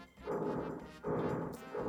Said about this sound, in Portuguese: temos, temos uma contribuição aqui de uma reforma. Né? Eu não sei que barulho é esse que surgiu de repente, uma furadeira no, no, no, recinto, mas ok, né? Não sei se está atrapalhando a nossa gravação, mas enfim.